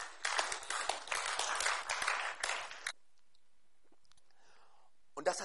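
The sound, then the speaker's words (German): A burst of audience applause, many hands clapping densely for about three seconds, then it cuts off into near silence with a faint murmur before a brief sound at the end. “Und dies hat, das ist jedes Mal Applaus geben.”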